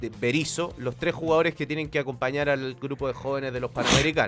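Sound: sneeze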